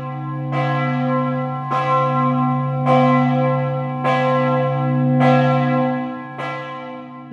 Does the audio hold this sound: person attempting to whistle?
no